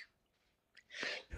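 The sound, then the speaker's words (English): A single forceful sneeze: a short sharp intake of breath, then a loud hissing burst and a brief trailing catch of breath, with no talking. “um, bless you.”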